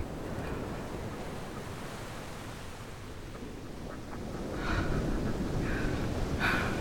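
Steady roar of open sea waves washing continuously, with wind rushing across the microphone; the surf swells slightly louder toward the end, and a few faint bird-like calls poke through.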